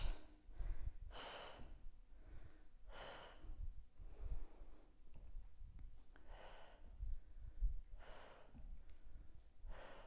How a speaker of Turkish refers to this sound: Otur, çek. Nefes al, ver.